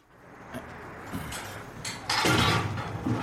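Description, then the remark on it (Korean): A rusty iron door in a back corner of a library, unlocked with a key by a librarian, creaks open onto stairs leading underground: a few soft clanks and scrapes at first, then a louder, harsh grinding screech that carries on to the end. No one speaks. “녹이 쓴 철문이 불편한 소리를 내며 열렸다.”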